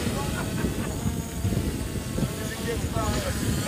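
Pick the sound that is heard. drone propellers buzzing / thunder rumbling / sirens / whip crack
drone propellers buzzing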